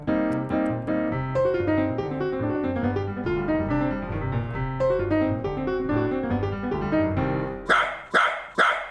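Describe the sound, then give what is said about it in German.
A dachshund barks three times in quick succession, loud and sharp, right after a stretch of tuneful music with steady sustained notes. “Können Sie mal den Dackel hier abziehen?”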